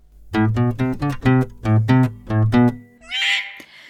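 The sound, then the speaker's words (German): Horseshoe bat calls: a quick run of about eight loud, buzzy, harmonic-rich pulses in steady rhythm, then a brief higher-pitched warbling squeal. No one speaks. “In unserer heutigen Folge des Biotopcasts geht es um das Tier, das diese Geräusche verursacht.”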